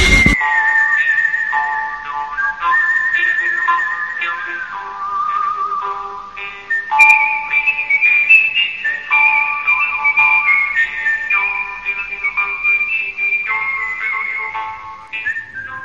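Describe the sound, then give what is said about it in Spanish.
A whistled melody carries a spaghetti western theme evoking the 1960s spaghetti western films, the sustained high tune gliding between long held notes over soft, low accompaniment, steady and fairly loud with no voices. “Hoy, esta música que estáis escuchando de fondo es un indicador, bueno, de todas esas películas que se hicieron en su momento, ¿no?”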